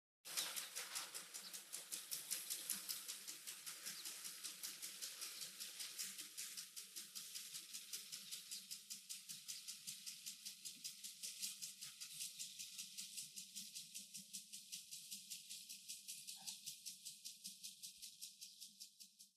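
A garden water sprinkler sprays steadily, a bright hissing rush broken into fast, even ticking pulses, fairly loud, running without a pause and with no voices.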